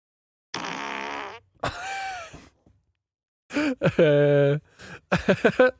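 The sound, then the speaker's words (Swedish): A recording of farts played back: four loud, drawn-out, buzzy blasts with short pauses between them, the third long and tonal, the last breaking into sputtering bursts. “ska vi se om du kan gissa vem som fes”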